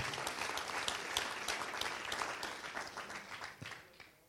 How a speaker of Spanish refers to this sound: Denle un aplauso fuerte si usted lo cree.